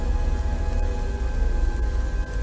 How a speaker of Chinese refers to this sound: 天还是阴沉沉的，偶尔还有几颗冰雹洒落下来，打在那浑浊的绿色水面上，溅起一朵朵浪花。